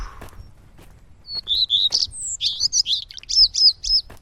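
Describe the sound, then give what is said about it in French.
Ambience in the Toufou forest in Vertou, with no wind and no car noise: a bird sings a rapid run of high, bright chirps and twitters over a faint low hum, starting after a quiet second and continuing to the end. “On est dans la forêt de Toufou, à Vertou.”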